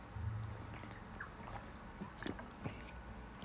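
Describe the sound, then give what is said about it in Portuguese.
Someone quietly drinks a glass of water, with soft sips, small liquid clicks and a gulp or two over a faint low hum, no talking. “Fui beber uma água aqui, desculpa.”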